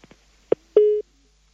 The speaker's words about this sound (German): Sie haben es gehört. Wir haben jetzt leider ist die Verbindung zu Professor Berger abgebrochen.